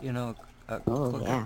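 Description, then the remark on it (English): A dog drinks water behind a speaking man, a soft wet lapping and splashing that sits under his conversational speech and shows through in a brief pause. “Dog, that's the dog drinking water behind me.”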